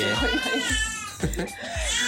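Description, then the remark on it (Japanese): A cat meows several times in quick succession, each call drawn out and wavering, fairly loud, with low thumping noises underneath. “お母さんが恋しいんでしょうね ちょっとね今はしゃいでてすみません”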